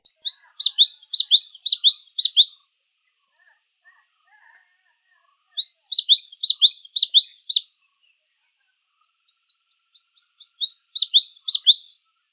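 Cinereous tit calls: three bursts of rapid, high-pitched chattering notes, each lasting a couple of seconds, separated by pauses with a few soft, faint chips between them. Clear, no talking.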